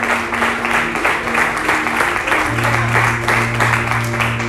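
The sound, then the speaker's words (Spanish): An audience applauds God loudly in the morning, a dense, steady wash of many hands clapping with no pauses, while a low sustained tone, like an organ or keyboard note, hums beneath it. “Y le dan un fuerte aplauso a nuestro Dios en esta mañana.”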